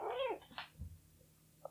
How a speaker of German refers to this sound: Ja, jetzt wird die Katze berühmt, sie war jetzt auch mal zu hören.